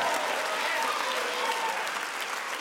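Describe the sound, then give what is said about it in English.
An audience applauds and cheers steadily as loud praise to God, a dense wash of clapping with voices mixed in, loud and sustained throughout with no pauses. “It's a loud praise to God.”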